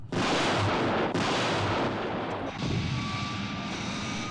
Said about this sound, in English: I do love as well the uh, the shots of the the Joe's jet in the sky as the explosions are going off around it.